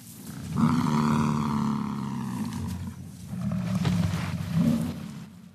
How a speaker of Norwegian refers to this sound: Dette er lyden av The American Bison, som dyret nå kalles. En gang var det titalls millioner av dem, de eide prærien og løp i flokker som i utstrekning var på størrelse med en middels norsk kommune. De største hannene kan veie opp mot et tonn.